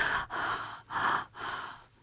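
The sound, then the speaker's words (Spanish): A woman imitates the labored, gasping breaths of a dying person in agony, about four harsh rasping pulls in a steady rhythm, each separated by a brief pause, moderately loud with no other sounds. “Eh, los tres han muerto de la misma forma, es una respiración así.”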